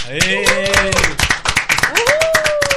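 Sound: studio audience applause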